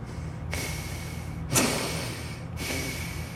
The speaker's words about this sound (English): …, who is also on the bunk, just breathing.